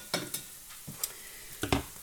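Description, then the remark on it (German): A pan of marinade sauce of red wine, vinegar and beer with honey and dissolving sugar, being cooked down, sizzles and bubbles while a spoon scrapes and stirs through it in several quick, irregular strokes, with soft clinks against the pan and no voices. “Und dann kochen wir quasi das Wasser raus.”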